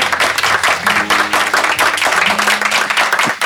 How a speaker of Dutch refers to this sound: applaus only.